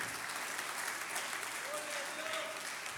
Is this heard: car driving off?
no